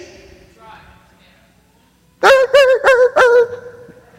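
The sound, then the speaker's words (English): During a sermon, a voice imitates a yapping puppy being shooed off as it runs away: four quick, loud, pitched yips in a row after a quiet lead-in, fairly strained. “And off the dog goes. Pardon the poor sound effects.”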